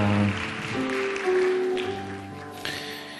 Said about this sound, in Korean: 우리 다시 한번 살아계신 하나님께 감사의 박수 올려 드리겠습니다.